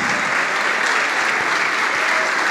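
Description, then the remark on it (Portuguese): A church audience applauds, celebrating prodigal sons and daughters coming forward, in a steady, dense wash of clapping that holds at an even, loud level throughout, with no voices standing out above it. “Ô oh, glória, vamos aplaudir mais.”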